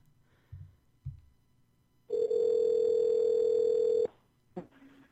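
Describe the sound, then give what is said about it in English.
A single loud, steady electronic ringback tone of an outgoing phone call to a guest sounds for about two seconds, preceded by a couple of soft thumps and followed by a brief click and faint line noise. “so let me get her on the phone Ring.”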